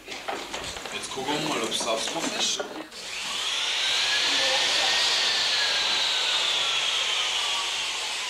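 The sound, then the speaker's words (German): Construction noise from the building site on the Greta grounds in Freiburg, above the Radio Dreiklang studio: rough, rhythmic scraping and rattling bursts for a few seconds, then a loud, sustained high whine like a power drill running steadily. “Da war Baustelle die ganze Zeit auf dem Greta Gelände.”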